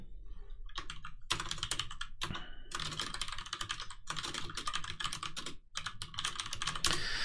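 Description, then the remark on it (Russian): Rapid typing of a message on a computer keyboard, a steady stream of sharp clicking keystrokes in quick bursts with brief pauses, fairly loud and with no voices. “я сейчас напечатал сообщение, а, у меня очень часто проскакивает пробел в ненужном месте.”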